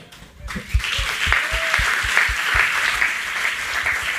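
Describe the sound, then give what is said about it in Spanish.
An audience breaks into sustained applause for two people after their testimony, many hands clapping in a dense, steady wash that starts abruptly and stays loud throughout, with no voices standing out. “Creo que sin duda, no sé cuántos pueden darles un aplauso de cómo su testimonio edifica sus vidas.”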